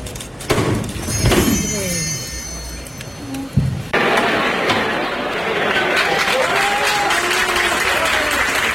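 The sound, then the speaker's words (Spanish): Street crowd applause in Seville, Spain, as costaleros lift a float: scattered thumps and shouts give way to a sudden burst of dense, sustained clapping from many people, with voices and cheers mixed in throughout. “Y aplausos de la calle.”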